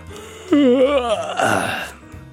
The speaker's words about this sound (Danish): Åh, jeg nåede engang at få min morgenkaffe, siger han og strækker hele kroppen, mens han gaber.